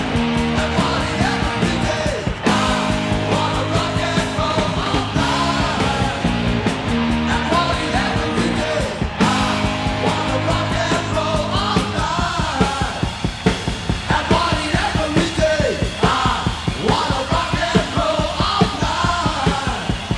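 A loud hard rock song plays throughout, with pounding drums, dense distorted guitars and shouted vocals driving a steady beat from start to finish.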